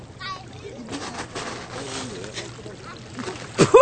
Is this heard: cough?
no